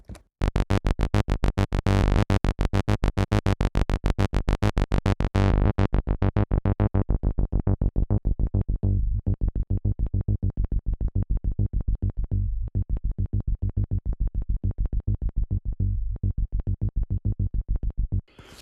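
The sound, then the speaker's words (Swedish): A buzzy sawtooth and square wave synth bass plays a steady run of repeated notes while a low-pass filter sweeps down, dulling the bright edge into a softer, rounder, darker tone. Loud and alone, no voices. “Så i nästa exempel så filtrerar jag ner eh, filtrerar ner filtret lite grann.”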